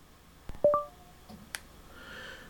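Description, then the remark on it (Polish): A click followed by a short two-tone electronic beep as a phone's volume key is pressed and held to start a voice note, clear. Another sharp click comes a second later, then faint background hiss. “Y, w tym celu naciskam klawisz głośności, jeden z dwóch i przytrzymuję.”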